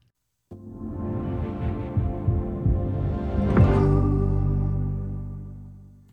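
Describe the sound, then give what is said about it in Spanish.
An Amazon Prime Video streaming intro sound: deep, throbbing bass pulses build up, then a bright rising swoosh opens into a full sustained chord that slowly fades away. No voices. “Y ese sonido que acaban de escuchar es el nuevo sonido de Amazon Prime,”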